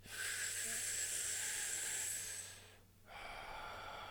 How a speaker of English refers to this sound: Let's take some deep breaths. Put your hands over your heart and let's breathe right into the heart space.